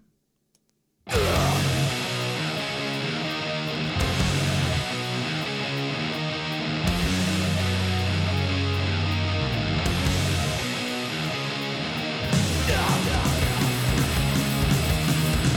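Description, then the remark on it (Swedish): A loud metal track kicks in after a second of silence, with dense distorted guitar riffing, pounding drums and crashing cymbals, shifting sections every few seconds without letup. “Nu lyssnar vi på låten som då hette”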